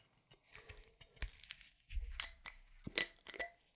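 A screw cap twisting off a wine bottle, a run of sharp crackles and clicks as the seal breaks, with a low scuff midway, then several more crisp snaps.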